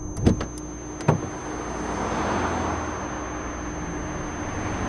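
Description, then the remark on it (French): Two sharp clicks of a car door as the driver gets out of a car stopped on the hard shoulder of a motorway with a flat tyre, then a broad rushing swell of passing traffic that builds and lingers, a steady roar of vehicles going by at speed. “Sortir de la voiture face aux autres voitures qui filent.”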